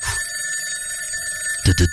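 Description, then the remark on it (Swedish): A telephone ring performed live as a jingle: a steady, high electronic trill that holds for most of the moment, then a few louder, rougher bursts cut in right at the end. “Jag har inte hunnit göra någon jingel än, men jag tänkte jag gör en eh, live här.”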